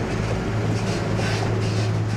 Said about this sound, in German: Alexander setzt mit dem Trecker zurück und wendet, macht sich auf den Weg zum Kuhstall.